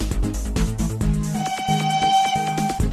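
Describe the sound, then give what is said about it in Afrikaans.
A train rumbles steadily while a sustained whistle-like tone rings out through the middle, layered over low, droning mechanical sounds at a fairly loud level. “Is dit dalk iets in die trein wat ek daar gewaar?”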